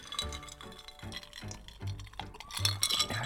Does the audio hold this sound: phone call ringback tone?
no